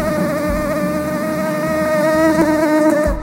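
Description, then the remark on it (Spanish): A loud mosquito buzzes near the ear, whining steadily for a few seconds, a thin droning hum with a slight wavering pitch and no voices. “Ya te he contado todo lo que sé, querido amigo mosquito. Ven y háblame al oído.”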